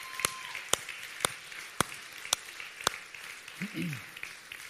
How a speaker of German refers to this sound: wollen wir mal den Bürgermeister Helmstein und alle Stadtverantwortlichen einen Riesenapplaus geben. Applaus